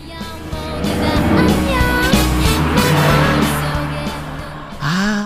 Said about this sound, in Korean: 다시 옆차를 따라갑니다. 이번에 놓치면 기회 없습니다. 잘 들어보세요. 옆에 차가 지나갑니다. 음악 소리 들려요. 옆차에서 어떤 노래 듣고 있을까요? 들어보세요.